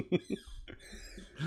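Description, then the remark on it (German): The speaker's chair squeaks in a few short, thin creaks, mixed with soft breathy vocal sounds and a brief laugh-like burst near the start. “Ich bitte das Quietschen zu entschuldigen, das ist mein Stuhl.”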